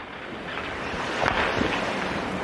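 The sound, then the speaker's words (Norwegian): Polar sea ice grinds and creaks against the hull of the ship Lance in darkness, at minus 40 degrees: a steady, rough rushing noise with a few sharper creaks and scrapes standing out near the middle. It is continuous, with no voices. “Linjen er så dårlig, men eh, Oda forteller at polarisen rundt båten Lance gnisser og knaker i mørket som omringer båten natt og dag.”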